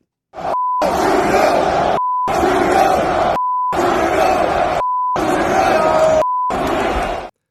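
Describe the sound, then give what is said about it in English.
A large arena crowd at a UFC fight in Toronto jeers and shouts at JT in a loud, sustained roar, repeatedly cut by four short, steady bleeps that mask parts of the chant. “So you know that the crowd was none too happy with JT.”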